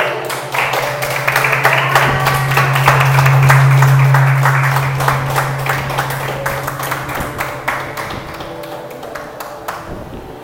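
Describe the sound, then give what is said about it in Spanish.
An audience applauds God, a dense wash of many hands clapping that swells and then slowly thins out, with a steady low musical drone sustained underneath and no voices. “Dale un aplauso a Dios.”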